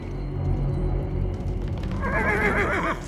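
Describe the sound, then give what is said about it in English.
Horses whinny loudly, a shrill rising neigh cutting through a low rumble, with hooves clopping steadily underneath and no voices. “As she reached the main path, the hooves got louder and the ground started to shake.”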